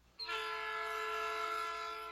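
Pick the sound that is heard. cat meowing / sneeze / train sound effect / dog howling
train sound effect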